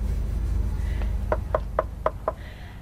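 Five sharp knocks on a wooden door in a quick, slightly uneven rhythm, fairly close, over a steady low background rumble with no voices.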